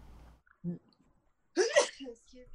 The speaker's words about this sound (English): Twice. Bless you twice. Thank you.